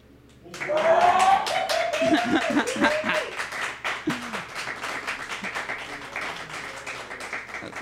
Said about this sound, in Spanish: Bueno, no sé si se escuchan los gritos, pero quien está gritando es el que desmadró la caguama ahorita.